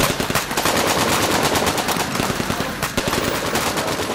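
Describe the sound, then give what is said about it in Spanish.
Sustained automatic gunfire, a loud, rapid stream of shots fired in continuous bursts with barely any pause, harsh, filling the whole stretch with no voices. “Paranoia de, susto, más le oprimes al gatillo y das y no paras.”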